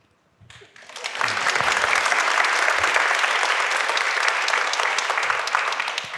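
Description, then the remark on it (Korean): An audience breaks into applause, starting with a few claps and swelling within a second into a steady, dense wash of clapping that holds loud for several seconds, with no speech over it. “뭐 박수 받을 일을 한 건 하나도 없어요.”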